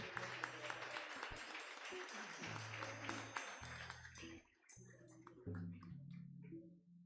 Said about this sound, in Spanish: Un aplauso, Señor.